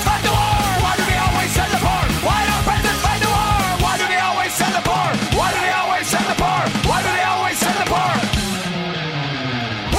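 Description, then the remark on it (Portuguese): A loud, dense rock song with heavy drums and distorted guitars, over which several voices shout a rhythmic, protest-like chant, "Why do they always send the poor?", that keeps going for the whole stretch. “Que aí eles começam a fazer tipo uma espécie de manifestação, tá ligado? Dentro da música. Why do they always send the poor? E tal, e começa a gritar.”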